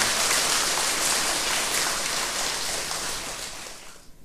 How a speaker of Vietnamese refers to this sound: xin hãy dâng cao tràng vỗ tay thật lớn để tán dương ban lãnh đạo của đạo phật ngày nay